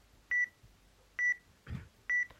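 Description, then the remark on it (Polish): A reading device's warning beep sounds three times because a hand blocks the camera view: short, identical high-pitched electronic tones at a steady, evenly spaced rhythm, clear, with a soft handling rustle between the second and third. “ten dźwięk, ten dźwięk oznacza, że y, coś zasłania obraz.”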